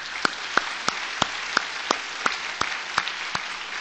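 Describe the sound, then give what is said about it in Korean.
An audience applauds in thanks to three members who went through discipleship training, a dense steady wash of many hands clapping, with sharper individual claps standing out at a regular beat roughly every third of a second. No voices are heard. “우리 오늘 아침에 이렇게 나와 주셨는데 우리 감사의 박수 드리겠습니다.”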